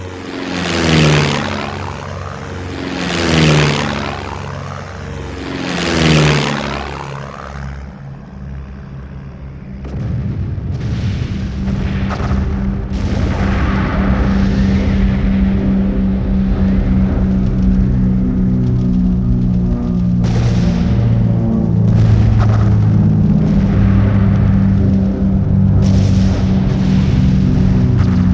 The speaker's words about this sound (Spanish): El bombardeo a la plaza.